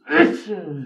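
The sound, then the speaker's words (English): A single sharp sneeze, fairly loud, with a breathy burst that trails off into a short voiced tail. “Bless you.”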